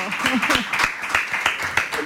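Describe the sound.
A burst of applause for a phone-in caller, a steady wash of hand claps with sharper individual claps standing out, while voices talk and laugh over it.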